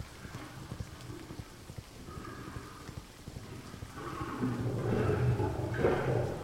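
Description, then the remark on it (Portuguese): A messenger's horse's hooves clip-clop in a steady rhythm as he rides toward Trena on a rainy night, the sound swelling louder and busier over the final seconds alongside a rushing, rain-like background. “Um mensageiro cavalgava a caminho de Trena.”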